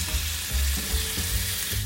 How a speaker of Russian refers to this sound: Теперь включаю плиту на средний огонь. Разогреваю сковороду и добавляю масло. Слегка поджариваю багет.